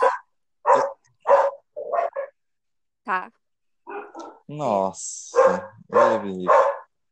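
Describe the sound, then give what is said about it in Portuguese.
Several Dalmatian dogs bark in loud, irregular bursts, some sharp and some drawn-out and whiny, with a person briefly speaking between the barks. “Nossa, olha, tem os cachorros latindo aqui.”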